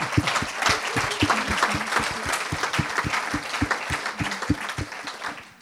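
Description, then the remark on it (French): An audience breaks into steady applause for the Lord, many hands clapping together in a dense, sustained wash with sharper individual claps punching through, holding strong for several seconds before easing off at the end. “I have to give the Lord a clap for that.”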